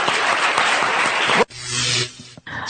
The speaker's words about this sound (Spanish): Un aplauso para este amigo, claro que sí.